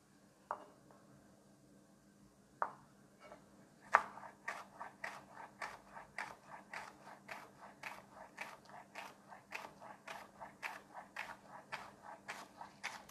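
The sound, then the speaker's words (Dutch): Rhythmic knife chopping spring onions into small rings, using both the white and green parts, on a cutting board: a few scattered cuts, then a steady run of crisp, evenly spaced crunchy slices, fairly quiet, with no talking. “Deze snijd ik even in kleine ringetjes.”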